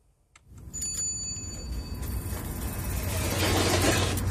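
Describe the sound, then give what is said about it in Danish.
A bright, ringing ice cream van bell chime sounds briefly near the start, then fades as a steady rumble of engine or traffic noise builds and takes over. “Så, øh, så man kan jo starte øh, i sæsonen 2013 ved at, at lytte efter hjemmesbilens klokker, og så gå ned og bestille en is med et meget langt navn.”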